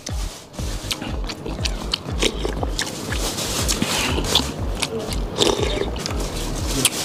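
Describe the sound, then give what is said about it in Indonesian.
Wet eating noises of mie kocok, a noodle soup with beef tendon, bone and meatballs: steady chewing with squelchy, sticky mouth sounds and occasional slurps, loud, continuing without talk. “Seruput demi seruput keringat saya sudah mulai keluar lagi.”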